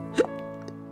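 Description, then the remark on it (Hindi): A single short hiccup sound effect, for a person starting to hiccup while climbing stairs with a bag of groceries, pops out near the start, quick and fairly loud, over a steady, faint tonal hum that continues to the end. “अपने हाथों में जो ग्रोसरी से भरा हुआ बैग है वो लेकर अपने सीढ़ियों पे चढ़ना शुरू करते हैं और तभी उन्हें हिचकी आना शुरू हो जाता है”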